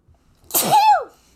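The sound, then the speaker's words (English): A single loud sneeze: a sharp breathy burst that swells into a voiced, pitch-arcing "choo" before cutting off, heard on its own without talking. “No, I sneezed and then I slipped.”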